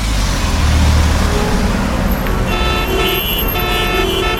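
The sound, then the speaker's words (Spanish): Busy road traffic with a steady low engine rumble, and several car horns honking in short bursts partway through, fairly loud with no voices. “Volvamos al tránsito.”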